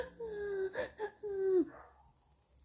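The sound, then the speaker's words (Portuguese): A voice imitates sobbing: a wavering, high-pitched cry broken by two short catching gasps, then a longer rising wail that trails off into quiet, fairly loud. “E ficaram me julgando porque eu chorei muito, que eu entro na história, eu choro realmente bastante, eu choro de soluçar, gente.”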